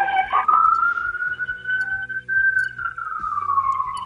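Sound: siren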